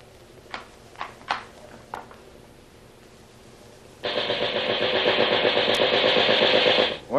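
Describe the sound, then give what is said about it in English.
A machine gun is test-fired to check it works: a few sharp single shots ring out, then a sustained rapid burst rattles loudly and continuously for about three seconds, unbroken. “Man the machine gun, Halden. Give it a test”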